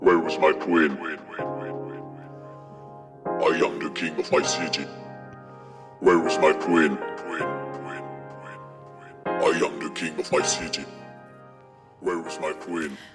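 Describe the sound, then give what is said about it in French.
A remixed electronic track: a chanted vocal phrase repeats in short loops every few seconds over a steady, droning synth tone, loud and close throughout. “Ce que vous venez d'entendre, c'est un extrait d'un titre remixé par la productrice”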